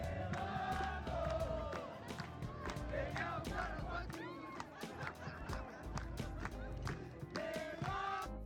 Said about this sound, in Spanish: O sea, la gente se la rifó, los músicos de ahí, ¿no? Qué chido que de volada compusieron un beatcito y todos se pusieron a aplaudir al ritmo.